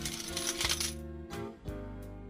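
Coins clatter and jingle as they drop into a shoebox used for collecting contributions, a burst of metallic rattling followed by a few distinct clinks with ringing tones, fairly loud, with no talking.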